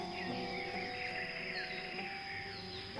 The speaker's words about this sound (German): Da ist ein Bienenvolk samt Königin drin.